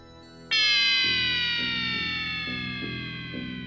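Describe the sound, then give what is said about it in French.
A menacing electronic sound from the 1983 film Christine, made each time the car Christine switches on her headlights: a loud, buzzy tone bursts in abruptly and holds, sagging slowly in pitch over a steady, low pulsing beat. “Sinon, ce que j'ai trouvé vraiment cool de Christine, c'est euh, le bruit ultra menaçant qu'elle va faire à chaque fois qu'elle va allumer ses phares.”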